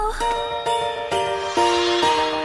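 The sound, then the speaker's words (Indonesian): A bright, upbeat stretch of a song plays loud, with sustained chords changing on a steady, bouncy beat and crisp percussive hits marking each change. No one speaks. It is the cheerful later part of a song that begins like a ballad. “Biar lo nggak salah paham, lo mungkin pas denger lo akan ngerasa lagu ini lagu ballad, tapi makin ke hmm. belakang hmm. tiba-tiba lagunya ceria.”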